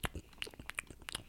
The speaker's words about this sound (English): Anyway, so, so I get the oatmeal, and it, it kind of like sounds like this